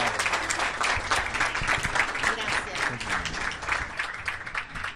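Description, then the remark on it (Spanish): Sustained audience applause at an event, bidding farewell to a guest speaker, dense overlapping clapping from many hands at a steady loud level, continuing throughout without pause. “Bueno, que vamos a despedirla con un aplauso.”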